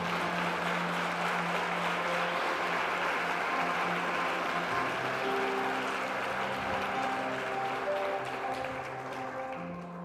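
Steady, dense applause from an audience clapping for God, a continuous crackle of many hands clapping for about ten seconds, with faint sustained musical tones underneath; no one speaks.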